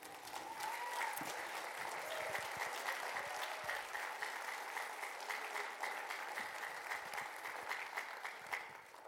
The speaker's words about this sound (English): give a hand clap of appreciation for our worship team.